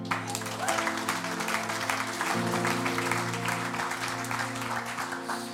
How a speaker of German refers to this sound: Das ist ein guter Moment zu klatschen. Amen.